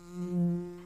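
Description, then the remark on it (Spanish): A steady, droning bee buzz hums for under a second in an advertisement for Andes Origen Miel honey beer, swelling slightly in the middle with a strong low fundamental and stacked harmonics, no voices present. “¿Cómo no va a zumbar en estéreo?”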